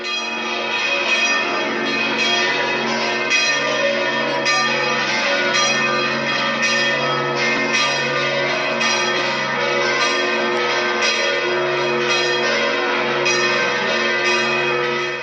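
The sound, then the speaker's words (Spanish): Church bells ring out from a bell tower in a dense, continuous peal, overlapping strikes blending into a loud, resonant wash of tones that sustains for the whole stretch without any voices. “Del uso de las campanas nació uno de los elementos arquitectónicos más importantes de la iglesia, el campanario.”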